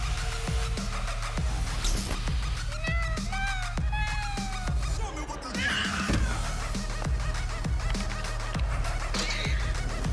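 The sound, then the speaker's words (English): A cat in a video meows several times in quick succession, short rising and falling cries clustered together, heard over a steady low background rumble with no one speaking. “mean, let's face it, what life is worth living that doesn't have cat videos, right?”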